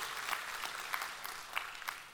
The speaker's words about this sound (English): Come on, somebody. It's, it's, yeah, you can clap, you can do it. You can do it.